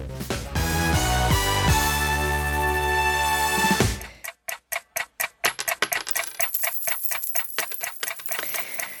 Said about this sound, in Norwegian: Klokka tikker mot innleveringsfristen for eh, skattemeldinga.